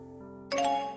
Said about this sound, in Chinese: 手机响了，江城看着飞信上简短的话，虽然是群发的，不带有任何的感情色彩。